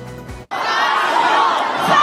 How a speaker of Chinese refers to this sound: 中国长沙一所示范高中师生全部站在走廊上，集体发出怒吼，因为学校二十六号预警宣布元旦三天连假减为两天，少休一天，师生觉得权益受损，决定跟学校拼了。